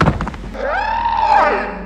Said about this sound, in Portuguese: por instinto você puxa sua pistola e dá dois tiros que acertam a criatura cai no chão assim